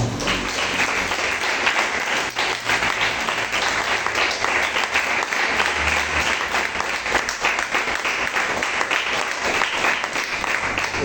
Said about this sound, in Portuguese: Aplauda o Senhor.